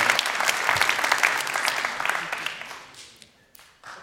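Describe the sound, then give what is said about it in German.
A burst of applause from a small crowd, dense clapping that gradually thins out and fades, with a few last scattered claps near the end. “Ab und so einen Applaus. Einfach mal reingestreut.”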